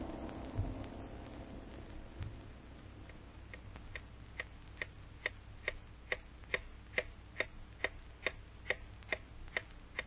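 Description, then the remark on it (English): A steady clock ticks, its sharp, regular ticks growing clearer and more prominent over a low background rumble, with no one speaking. “time moves on. I wonder what the clock holds for Lucy.”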